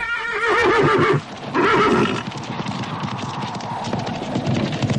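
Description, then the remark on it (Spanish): A horse neighs loudly twice in quick succession, followed by steady clip-clopping hooves of a horse-drawn carriage rolling along, with no voices. “Y ahora, uno de ustedes sube a un carruaje.”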